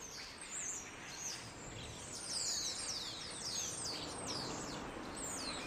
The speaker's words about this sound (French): Moi j'étais piégé, je m'étais piégé tout seul à plus pouvoir supporter le bruit des oiseaux et c'était un peu en lien avec aussi ces oiseaux, putain d'oiseaux qui sont en cage, enfermés et tout et voilà.